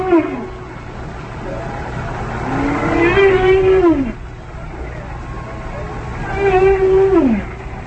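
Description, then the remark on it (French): Whale calls recorded underwater: two long, tonal moaning cries that rise and then slide downward, set against a steady wash of hissing water noise. “là, on entend des enregistrements de bruit de baleines enregistrés euh, sous l'eau.”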